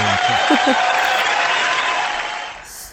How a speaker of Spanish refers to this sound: Espera, espera, espera, espera, espera. hay que ponerle aplauso, hay que ponerle dos aplausos.